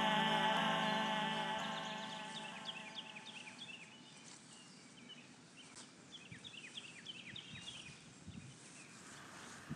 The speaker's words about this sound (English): the dulcet sounds of birdsong from a previous Summerfest